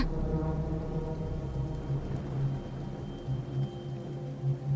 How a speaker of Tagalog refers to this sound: Malamig ang patak ng ulan noong gabing yon.